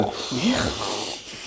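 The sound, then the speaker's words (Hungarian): A voice imitates loud, heavy snuffling breathing, a steady breathy hiss with nasal snorting rasps running through it for about a second and a half. “Tehát hogy, tehát, hogy az van amúgy a köhögő fulladozónál, hogy, hogy, hogy tényleg ebbe beletartozik amúgy a hangosan szuszogó is, tehát aki úgy jön, hogy”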